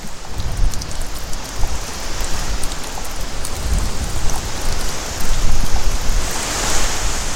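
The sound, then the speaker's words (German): A dense, steady patter of water dripping from fog-catching nets on the Atlantic coast as clouds pass through them. Many drops fall continuously onto a surface, sounding almost like rain though no rain falls. It holds at a fairly even loudness with no voices. “Und dann Wasser, Tropfen für Tropfen, ganz ohne Regen.”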